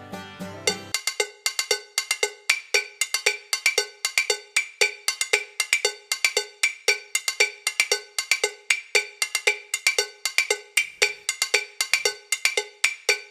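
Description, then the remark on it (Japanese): A steady, rhythmic run of bright metallic percussion instrument hits, like a cowbell struck repeatedly in quick succession, clear with no voices, continuing evenly for several seconds. “あの最近はちょっともうただの音を聴いてるってこともあるただの音 もうその楽器楽器の打楽器の音ね あどんな音が聞きますか用意できますかあじゃあはいお願いしますあ今こんな音なんですけども”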